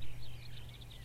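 A common quail calling: a quiet run of short, high chirping notes repeated in a steady rhythm over a low background rumble, with no voices.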